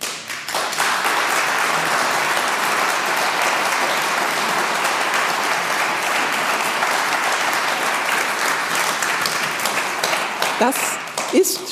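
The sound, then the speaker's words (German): Sustained closing applause from a live audience at the end of an interview with a minister, a dense wash of many hands clapping at steady volume for about eleven seconds before tapering slightly at the end. “schon der Schlussapplaus.”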